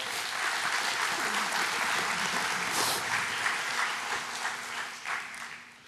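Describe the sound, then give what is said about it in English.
A church audience claps steadily and warmly as a family comes up, a dense sustained wash of applause that holds for several seconds before gradually thinning out toward the end. “Would y'all give them a round of applause while they come up?”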